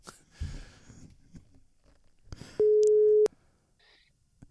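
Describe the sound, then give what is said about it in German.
A phone line's ringback tone: one steady, loud, mid-pitched beep lasting under a second, bracketed by sharp clicks and preceded by faint rustling and handling noise. “Es klingelt.”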